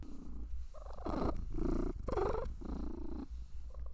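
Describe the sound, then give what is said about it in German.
A female cat makes a series of throaty, gurgling clucks instead of purring, four or five rhythmic bursts with short pauses between, warm and contented rather than a steady purr. “Sie schnurrt nicht, sie gluckst.”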